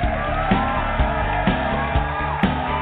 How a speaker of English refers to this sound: And the crowd goes wild with abandoned approval.